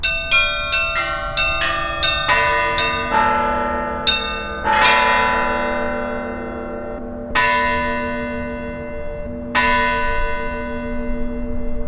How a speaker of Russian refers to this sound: У нас каждый час колокола отбивают время. Тоже милости Божией такое удалось установить нам на, на, на звонницу такую аппаратуру.